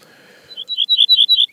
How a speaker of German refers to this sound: Da kann man ihn dann mal hören. So klingt er, der Ortolan. Und ist eigentlich sehr schön, ja, so ein bisschen melancholisch.